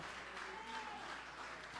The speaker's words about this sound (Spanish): Débele un aplauso al Señor, hermano. Aleluya, aleluya. Aleluya, aleluya, aleluya. Fuerte el aplauso para el Señor.